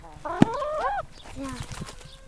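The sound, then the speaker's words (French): Chickens cluck as one is picked up by the wings: one loud, drawn-out squawking cluck with a sharp thump near its start, followed by a few softer, shorter clucks. “Les poules, elles aiment bien quand, quand on fait.”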